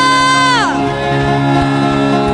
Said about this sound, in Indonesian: Mari setiap jemaat Tuhan berikan sorak-soremu dengan luar biasa. Katakan haleluya.